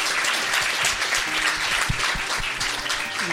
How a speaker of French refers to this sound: Applaudissements.